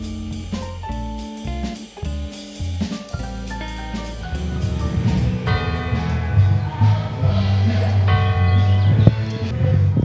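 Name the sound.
cathedral church bells ringing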